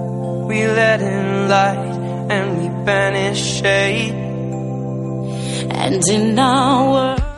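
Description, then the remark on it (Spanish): A melodic, somewhat sad Christmas charity song: a wavering sung vocal line over sustained, steady backing that holds an even loudness for several seconds before cutting off abruptly. “y bueno, esto suena un poco así, ¿no?”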